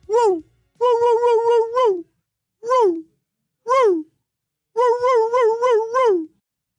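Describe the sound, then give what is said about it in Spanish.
A voice imitates a dog's whiny, high-pitched attention-seeking bark, like a dog barking in the house for nothing: rhythmic groups of quick yelping whines alternating with single drawn-out cries, fairly loud, with short pauses between. “un ladrido que quiere llamar la atención y un ladrido que en algunas ocasiones podríamos llamar como el ladrido canzón, ese ladrido chillido que hace que nos desesperemos cuando escuchamos al perro ladrando en la casa por nada.”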